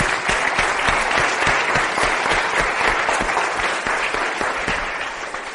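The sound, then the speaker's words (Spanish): A crowd claps steadily for several seconds after a speaker finishes the part of a talk on the individual plan, a dense, even patter of many hands that stays loud throughout and tapers slightly at the end, with no voices over it. “Noten que hasta un aplauso por el plan individual, hemos acabado ese pedacito.”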